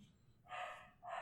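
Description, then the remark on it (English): A dog barks twice in quick succession, the first bark longer and the second cut short, sounding faint in the background. “Man, your dog's killing me right now.”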